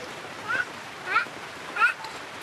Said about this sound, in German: Es blubbert auf dem Reisfeld wie kochendes Wasser.